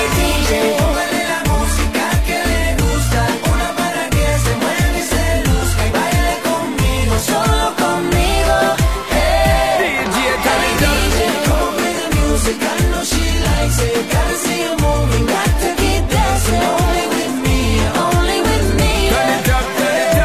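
A dancehall remix plays loud and continuous, driven by a thumping, steady bass beat under dense, layered synths and percussion, with no one talking over it.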